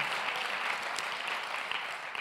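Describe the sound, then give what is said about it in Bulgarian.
Steady applause from an audience, a dense crackle of many hands clapping at an even, sustained level throughout, with no voices over it. “О, ако искаш да ръкопляскаш, ръкопляскай, като че наистина го вярваш.”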